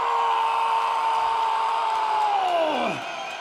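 A loud, dense concert crowd in Lyon roars and cheers continuously, with one long sustained whoop riding on top that slides downward in pitch near the end.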